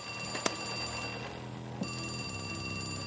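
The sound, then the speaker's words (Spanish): A red telephone in a dining room rings with a steady, continuous bell tone, fairly quiet, with a couple of brief knocks partway through and no one speaking. “En el comedor, el teléfono rojo suena en presencia de Berlín, Denver, Moscú y Tokio.”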